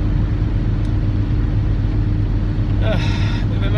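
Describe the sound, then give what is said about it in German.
Steady low engine rumble and road noise from inside a moving car, constant and fairly loud throughout, with a brief higher whine or chime near the end. “Ich habe hier gerade einen Verrückten vor mir, also ein bisschen vorsichtiger fahren.”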